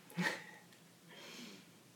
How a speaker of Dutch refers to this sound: Proost, ik neem weer even een slokje.